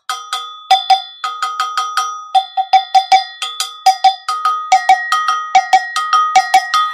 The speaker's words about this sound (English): And let me introduce you, though, to my friend here, the Gokankui. And you can see it looks like, and it is a, a bell